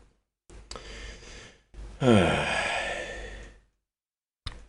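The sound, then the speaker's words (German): A man yawns loudly into a camera: a couple of breathy inhales, then a long drawn-out voiced yawn sliding down in pitch before fading into silence. “er hat gerade sehr, sehr unhöflich in die Kamera gegähnt.”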